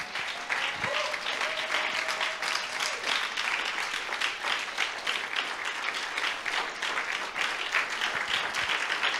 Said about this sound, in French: Est-ce qu'on peut se lever et acclamer le Seigneur?